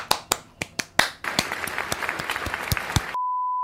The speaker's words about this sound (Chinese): 感谢你持续的收看，给自己拍拍手一下吧。